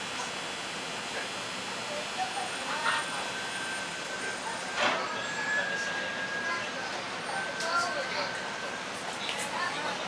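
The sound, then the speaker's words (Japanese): A 1000 series train of the Kitakyushu Monorail in Japan, running between Kikugaoka and Kokura, rolls into a station, its steady electric motor whine and humming rumble heard with a few brief clunks and squeals as it slows. “北九州モノレール 1000系 企救丘から小倉まで”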